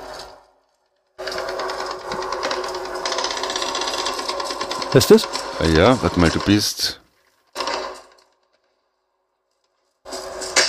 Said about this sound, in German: Nein, das ist äh, Call of Duty Modern Warfare, heißt das. das ist ein Schießerei.